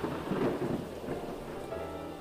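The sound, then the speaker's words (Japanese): Deep, rolling thunder rumbles over a steady hiss of heavy rain, a continuous stormy wash of sound with no voices, depicting the seventh plague, in which lightning burned barns where grain seeds were stored. “次に第7の災いが来た天候がひらめきさまざまな穀物の種が蓄えられている納屋を焼いた”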